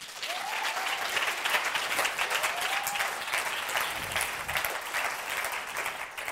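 Steady, dense audience applause at a Science Slam welcoming a physiotherapist speaker, with many hands clapping at once, holding an even loudness throughout, with a couple of faint whistle-like rising tones near the start.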